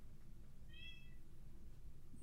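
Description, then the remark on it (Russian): A pet cat yowls once at home, a short, high, drawn-out wail that rises out of a low steady background rumble and then fades, leaving only the hum. “У меня орет кошка.”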